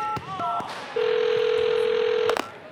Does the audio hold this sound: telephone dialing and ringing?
yes